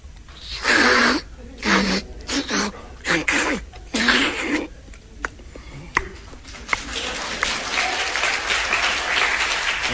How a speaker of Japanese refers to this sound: そうですか拍手もらったからもう一回